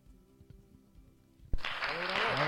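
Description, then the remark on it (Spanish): Applause from an audience for the young hosts who come on to present the day's historical anniversaries bursts in after a quiet, low murmur and continues as a dense, steady wash of clapping, loud and sustained to the end. “Y le damos, un aplauso. a nuestros conductores.”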